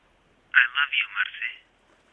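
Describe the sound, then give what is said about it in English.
A phone sounds a short electronic new-message alert, a quick warbling run of several bright notes lasting about a second, clear, with silence around it. “Two months had passed since his death, and when Marcelina feared she knew nothing but desolation and rage, suddenly her phone rang with a new message.”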